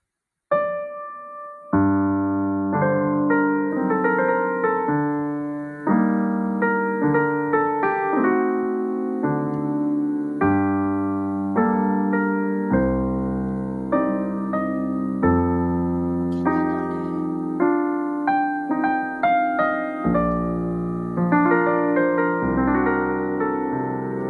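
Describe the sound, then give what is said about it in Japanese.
Solo piano practice: a steady, unhurried passage of sustained chords and melody notes, played fairly loud with no voices, continuing evenly for about twenty-four seconds, with a neighbouring wrong key struck by mistake. “いや、変な音がするなと思ったら、隣の鍵盤をしていましたよ。”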